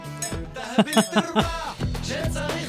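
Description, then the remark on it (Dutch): Several wine glasses clink together in a quick cluster of bright chimes during a toast, with voices and light laughter overlapping around them. “pakken we de wijn en dan zeggen we... Legaim, dank jullie wel. Ja, proost.”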